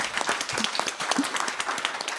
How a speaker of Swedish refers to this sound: Och det tycker jag förtjänar en applåd till, till er som är arrangörer för detta.